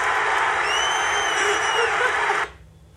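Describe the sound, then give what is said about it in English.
A large stadium crowd at a Dodgers game roars and cheers in a dense, sustained wall of noise, a high whistle rising briefly above it, before the sound cuts off abruptly near the end. “The, the crowd was going crazy.”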